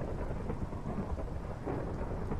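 Steady, dense rainfall pours down with a deep, continuous rumble of thunder rolling underneath, filling the whole stretch evenly without any pauses or voices.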